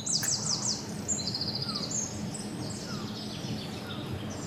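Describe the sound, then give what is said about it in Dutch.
Outdoor birdsong with a repeated high, thin mewing call in quick sweeping notes near the start, followed by softer chirps and trills over a steady low background hum. “Buis, wat horen we? Kun je nadoen? Ja, ze noemen dat miauwen.”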